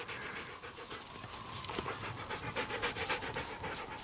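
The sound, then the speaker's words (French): A huge native husky dog trotting at a man's heels in bitter cold of about 60 degrees below zero pants steadily, quick rhythmic breaths repeating without pause for several seconds, with no voices over it. “Sur les talons de l'homme trottait un chien, un énorme husky du pays”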